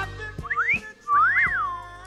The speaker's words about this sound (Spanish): cada vez que entra a la oficina, todas silbamos a la par.